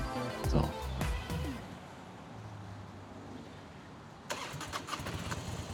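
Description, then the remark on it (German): An engine cranks and catches with a rough, sputtering start, settles into a low steady idle, then rumbles back up with pulsing throttle as a motorcycle ridden by a woman moves off slowly toward a building. “jetzt hörst du, was die Frau auf dem Motorrad schreit. Sie fährt langsam, langsam auf das Gebäude zu”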